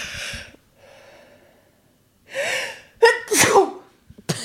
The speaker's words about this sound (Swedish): Nu nyser jag.